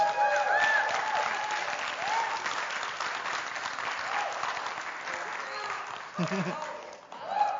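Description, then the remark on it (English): Audience applause for the team at South Toledo fills the whole stretch, a dense, steady wash of clapping at an even loudness, with a few whoops and cheers rising above it and a brief voice near the end. “And you can go ahead and you can just give them a round of applause.”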